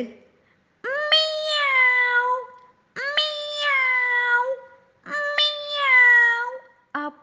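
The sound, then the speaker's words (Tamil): A voice imitates a kitten's meowing as Simba's attempt at a roar: three long, drawn-out whiny meows at a steady pace, fairly loud, ending with a brief clipped fourth mew. “டேய் கண்ணா சிம்பா இது என்னடா இது இது கர்ஜனை இல்லடா இது பூனைக்குட்டியோட மியாவ் மியாவ் சத்தம்டா அப்படின்னு சொன்னாங்க”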